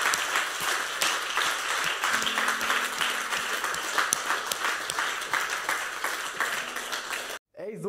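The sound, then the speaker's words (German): Sustained applause from a crowd, dense and loud with steady clapping and a few cheers mixed in, running for several seconds before abruptly cutting off. “Lass uns einen fetten Applaus geben.”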